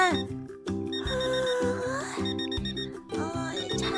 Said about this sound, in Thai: เสียงนาฬิกาได้ดังขึ้นเด็กยิงสายไหมได้พลิกตัวแล้วก็ค่อยๆยืดแขนขึ้นไปจับนาฬิกา แล้วก็ได้กดปุ่มปิดเสียงอย่างงวงเงีย